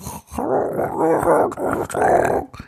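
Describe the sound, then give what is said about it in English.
A voice imitates garbled, distorted call audio from a recording with bad audio issues, making a warbling, growly stream of nonsense sounds for under three seconds, fairly loud, with brief choppy dropouts. “we recorded and Joe had bad audio issues”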